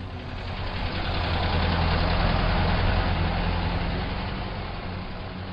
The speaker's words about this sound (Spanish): Tiene miedo de los autos Volkswagen a los que llaman cepillo y que muy lentamente recorren las calles de la ciudad y los pueblos, espiando con sus radares a quien pueda escuchar una radio que no sea la oficial dominicana.